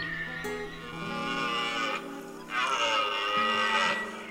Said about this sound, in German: Elche in der Brunst beobachten.